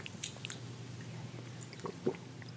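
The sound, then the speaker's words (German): Quiet wet mouth sounds of someone taking a sip of coconut water, with a few soft smacks and a brief louder slurp near the end; no one speaks. “Ich nehme einen Schluck.”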